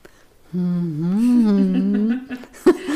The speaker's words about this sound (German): ich mache ja eine Stimmtherapie. Ich könnte das Zitat diesmal auch mit dieser Übung vortragen, die ich so hasse. Da muss man dann nämlich nicht sprechen, sondern summen und es klingt dann so.